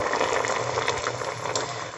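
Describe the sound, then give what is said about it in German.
A pot simmers and bubbles steadily on a stove as someone cooks, a continuous wash of small popping bubbles and hiss with no talking. “Und ähm, ich bin hier gerade am Köcheln, vielleicht hört man es blubbern.”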